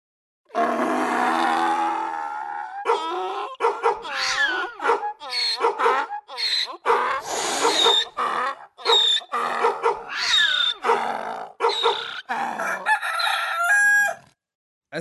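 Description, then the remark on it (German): A homemade, rhythmic, chopped-up collage of animal noises imitating the terrible din with which animals drive robbers away: rooster crows and barking dogs alternate in short bursts with grunting sounds mixed in, loud, repeating in a steady pulse. “gibt es in diesem Moment des schrecklichen Lärms, mit dem die Räuber vertrieben werden durch die Tiere.”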